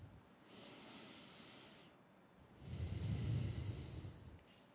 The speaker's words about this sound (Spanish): Tomen una respiración profunda y lentamente abran los ojos.